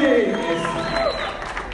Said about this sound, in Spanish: Ahora usted dice, ay, ¿qué tiene que ver el aplauso y la gritería? Todo que ver.